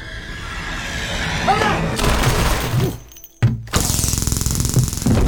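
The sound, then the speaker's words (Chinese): A loud, rapid burst of automatic gunfire as a ghost character fires back a burst of bullets, shots rattling off in a fast, even rhythm after a brief drop-out, following a dense stretch of crashing, chaotic noise. “哪知道小鬼衣服防电，没被电晕，反手就是一梭子子弹。”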